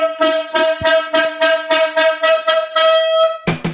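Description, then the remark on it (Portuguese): A loud, brassy horn blares in a quick run of repeated pulsing blasts, nearly continuous, then breaks into a different, harsher burst right at the end. No voices. “disso tem a corneta aleatória”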